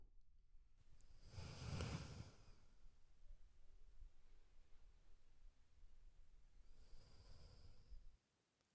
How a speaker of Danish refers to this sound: Så synes jeg, at du skal lukke øjnene og så skal du tage tre dybe vejrtrækninger. Og når du føler dig klar, så ser du bare til.